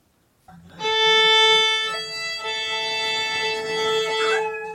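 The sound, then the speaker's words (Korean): A freelance violinist practicing at home holds a long, steady bowed note on the violin while a dog howls along, the two blending into one continuous, fairly loud tone lasting several seconds, with no talking. “오늘은요, 프리랜서 바이올린 연주자께서 집에서 연습하는 소리를 보내주셨는데요.”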